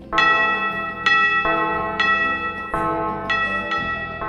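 Two bells ring together, their loud, resonant strikes overlapping at a slow, steady pace, each blow leaving a long shimmering hum that carries into the next.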